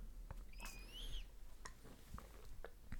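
Someone takes a drink from a water bottle, with quiet wet clicks and gulps spaced out over a few seconds and a brief squeaky, whistling sound early on.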